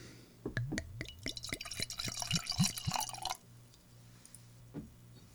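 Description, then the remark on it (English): Toyo Bijin sake, from a Japanese brewery founded in 1921, glugs from a bottle into a glass for about three seconds in rapid, bubbling pulses, then stops, followed by a single faint drip. “Well, why don't we uh, why don't we get these sakes into our respective glasses?”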